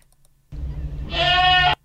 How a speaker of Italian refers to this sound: Risentiamolo un attimo, la nostra capra in calore.